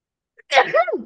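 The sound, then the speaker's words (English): A single loud sneeze with a brief sharp intake of breath just before it, bursting out and trailing off into a voiced exhale. “That's the truth that came out on that sneeze right there.”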